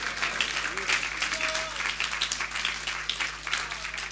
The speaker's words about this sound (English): Just give him give him applause right now.